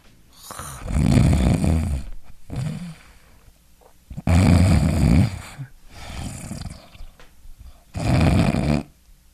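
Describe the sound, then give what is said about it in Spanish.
A person imitates the loud, rasping snoring that comes before a pause in breathing, four heavy rumbling breaths with short gaps between them, prominent, with no talking. “Es así como suceden tres, cuatro ronquidos, entonces se relaja más la vía aérea y se interrumpe el paso del aire.”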